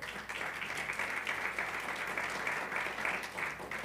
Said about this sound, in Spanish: Démosle un aplauso al Señor, por favor.